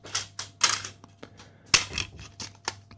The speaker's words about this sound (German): Ja, du äh, entschuldigst, dass ich währenddessen ein paar CDs hier noch sortiere.